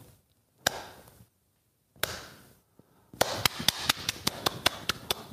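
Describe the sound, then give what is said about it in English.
A slow clap: two isolated claps with long pauses, then a quicker run of about ten sharp claps that gathers pace, with no talking. “I, I know that somewhere around the country there's a, a slow clap that started.”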